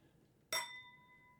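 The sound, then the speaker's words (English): A single bright clink as copper mugs holding cranberry mule drinks tap together in a toast, leaving a clear metallic ring that hangs and slowly fades in an otherwise quiet moment. “Well, cheers, sweetie. Cheers.”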